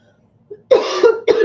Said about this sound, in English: Excuse me, I have this cough I just can't shake. I'm sorry.